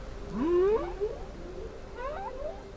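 Humpback whale song: two long, rising tonal moans with a wavering, harmonic quality, the first louder and the second softer, over a low, steady background hum.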